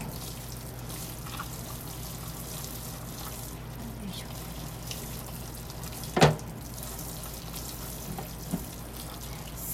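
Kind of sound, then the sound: household object, running tap water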